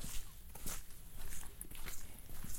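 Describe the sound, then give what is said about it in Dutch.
Footsteps crunch along an outdoor path in nature at the Wingelderveld at a steady walking pace, each step a soft scuffing thud over a constant breezy background hiss. “Kijk, wij lopen nu in de natuur.”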